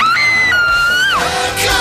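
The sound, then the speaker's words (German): A person lets out a loud, high-pitched scream of joy, a single sustained shriek that rises and wavers for under two seconds, with no other voices. “Schrei vor Glück oder schick zurück.”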